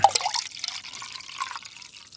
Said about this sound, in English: Get your drink on, and I'm gonna be pouring that beer. Here we go. Oh, come on, baby. Come on.